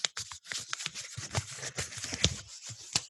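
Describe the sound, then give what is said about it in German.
Dry paper crackling and rustling as a rolled paper challenge scroll, its Tesafilm tape just cut, is unrolled, with a few sharper crinkles and tearing-like snaps scattered over about three seconds, no talking. “So, Tesafilm ist durchgeschnitten. Ich entrolle die Challenge.”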